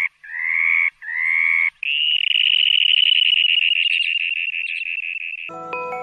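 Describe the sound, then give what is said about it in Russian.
A dunlin, a small sandpiper of the Amur River basin, calls with three short, buzzy high notes, then breaks into a long, steady, rattling trill at a similar pitch. It stays loud and clear with no talking, ending in a brief harmonic tone. “Птицы бассейна Амура - чернозобик”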